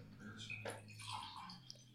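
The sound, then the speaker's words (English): A drink is poured into a glass, a steady splashing, gurgling stream lasting a couple of seconds with a faint drip near the end. “yeah, you can pour me some too.”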